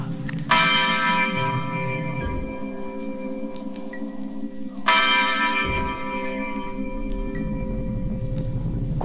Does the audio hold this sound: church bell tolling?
yes